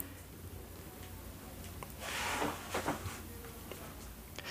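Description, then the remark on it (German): A paper receipt being crumpled: a short cluster of soft, crackling rustles that swells briefly in the middle, then trails off into a few faint crinkles against a quiet background. “Tatsächlich ist es das Zerknüllen eines Kassenbons gewesen.”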